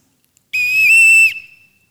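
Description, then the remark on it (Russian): A single loud, steady whistle blast lasting under a second, shrill, with a slight warble in the middle and a short fading tail, with no other sounds around it. “слышите? Свисток.”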